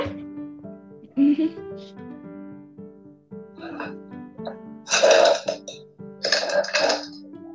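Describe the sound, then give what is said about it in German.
A voice makes several rough, guttural growling noises in short bursts, the loudest two harsh and raspy near the end, with quieter throaty sounds between them over a faint steady hum. “Nee, das war eher, eher so ein. Äh, so ein Knurren.”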